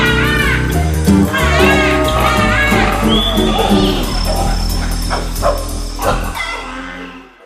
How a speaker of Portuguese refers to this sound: O cachorro ao ao galo cocó, a galinha có, os pintinhos peru.